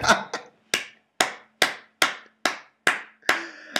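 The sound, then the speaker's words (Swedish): Slow, evenly spaced hand claps, about nine sharp loud smacks, each ringing briefly before the next, with no talking over them. “applåder! Applåder!”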